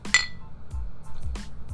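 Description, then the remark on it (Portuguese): A bright glass clink rings out near the start, followed by soft low thumps and a quieter second tap, like a glass being lifted and set down during a quick sip after a toast. “Só um gole, gente, rapidão.”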